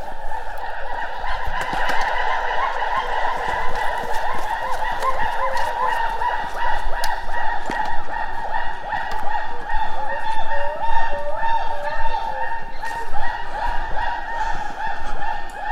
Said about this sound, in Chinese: 录到了长臂猿的声音。